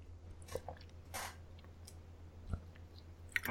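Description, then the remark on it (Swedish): Quiet mouth sounds of someone sipping water: a handful of soft slurps and small wet clicks spread out over a few seconds, with a low steady hum underneath and no talking. “Jag kan, jag, ska, jag kan ta lite vatten här, får vi se om det hörs.”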